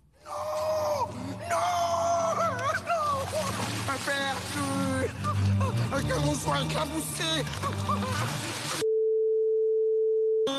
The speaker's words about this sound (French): On recherche deux mots. Dans l'extrait où j'ai mis un petit bip.